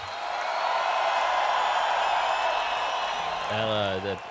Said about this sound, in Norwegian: Om du har, eh, om du har den der eh, applausknappen klar? Jeg har applausklappen klar.